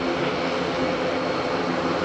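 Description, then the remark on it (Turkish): A steady, loud engine drone of Koca Yusuf, a Turkish military cargo plane converted into an ambulance, setting off for Wuhan to evacuate Turkish citizens from China; a dense continuous roar with no voices and no change over the short stretch. “Ambulansa dönüştürülen askeri kargo uçağı Koca Yusuf Wuhan'a doğru yola çıktı.”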